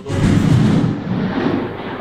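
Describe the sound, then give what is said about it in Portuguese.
A loud, deep rumble of thunder rolls through the whole stretch, heavy in the low end and slowly fading without dying out. There are no voices. “Tá bicho, é um trovão, velho.”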